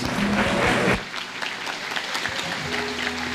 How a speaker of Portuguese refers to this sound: Quem pode dar um aplauso e um glória a Deus?